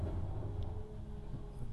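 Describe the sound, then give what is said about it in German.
A garbage truck drives by outside, a steady, muffled low engine drone with a faint whine, continuing without pause. “Oh, eine Müllabfuhr ist das.”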